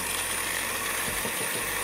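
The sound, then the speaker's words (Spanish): A blender runs with a loud, steady whirring roar and a low motor hum underneath, blending contents without any added liquid, its tone briefly shifting partway through as the contents churn. No one speaks. “Vamos a ver si la licuadora lo toma.”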